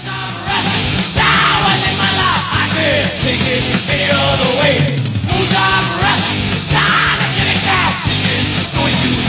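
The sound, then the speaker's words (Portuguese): A loud, dense 1983 heavy metal track plays throughout, with distorted guitars, pounding drums and a shouted, aggressive vocal carrying over the driving, continuous wall of sound. “Vamos lá. escutar então uma música de quando eu não existia.”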